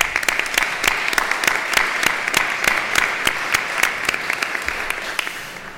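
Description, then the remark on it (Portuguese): A crowd applauds steadily, a dense patter of many hands clapping with sharp individual claps standing out, holding a fairly even loudness before tapering slightly at the end. “Eu pedi uma salva de palmas para ela, está bem?”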